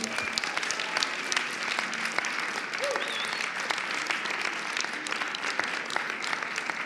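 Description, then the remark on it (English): An audience applauds a panel of women dancers steadily for several seconds, a dense wash of many hands clapping at an even, fairly loud level, with a brief faint whistle rising above it midway. “Uh, please help me applaud these wonderful people”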